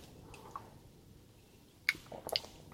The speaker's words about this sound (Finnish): Mun naapurit käy tuon tuostakin jotakin huljuttelemassa lavuaarissa, niin täällä kuuluu kohinaa, mutta koittakaa kestää se. Ne on niitä niin sanottuja elämän ääniä